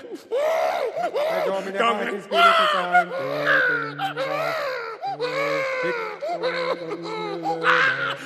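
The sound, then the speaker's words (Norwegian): Several babies wail and scream at once, a loud overlapping chorus of high, rising and falling cries with an echoing quality, continuing without pause, during a baptism by the Pope in a chapel in Rome of 28 babies, 15 boys and 13 girls. “For det var noen babyer som begynte å skrike, eh, for det gjør jo gjerne små eh, babyer,”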